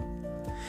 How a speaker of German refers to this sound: Ich habe gesagt, das Geräusch, was ihr gerade hört, ist die Katze, die an einer Tüte spielt.